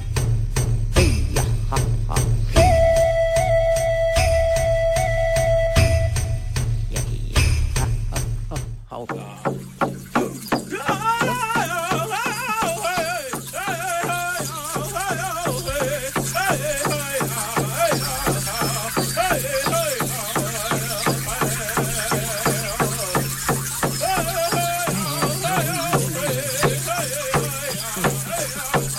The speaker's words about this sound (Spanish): He, cogido algunos, algunas danzas de lluvia de indios. Sí. Pero algunas me suenan como a cachondeo, ¿eh?